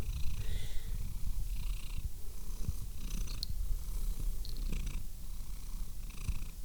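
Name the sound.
cat purring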